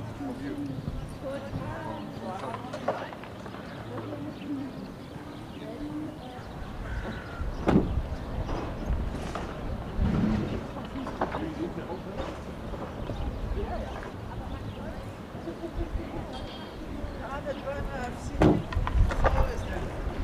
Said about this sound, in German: Das war die Geräuschkulisse vom Mauerpark